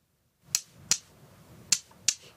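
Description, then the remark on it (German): Two small pebbles are knocked together in two quick pairs, four sharp, dry clicks, mimicking a bird's clicking call. The background is otherwise quiet and no one speaks. “So, und jetzt meine nahezu perfekte Imitation mit zwei kleinen Kieselsteinen.”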